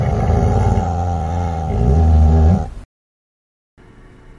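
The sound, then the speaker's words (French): A huge dog lying on an apron spread on the ground growls in a deep, sustained rumble that swells slightly before cutting off abruptly, followed by a brief silence and a faint hiss of background noise. “L'énorme chien s'y allongea, mais continua de grogner doucement.”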